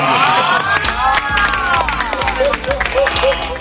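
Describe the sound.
A studio audience on a JTBC TV show claps and cheers for a few seconds, a dense, steady wash of applause with crowd noise and some overlapping voices mixed in.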